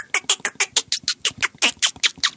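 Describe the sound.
A person imitates a bird with a quick, steady run of about a dozen sharp, high chirps, loud, with no talking in between; such calls were made to call calves and cows.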